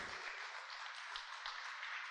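Sustained applause from a large crowd, a dense wash of many hands clapping at once, steady and fairly loud throughout with no voices standing out; an audience at an evening religious service at the Centro Misionero applauding the Lord.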